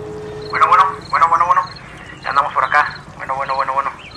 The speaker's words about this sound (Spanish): Déjenme, le marco. Mm, ahí está marcando. Ya está llamando. Esperemos que nos conteste este muchacho.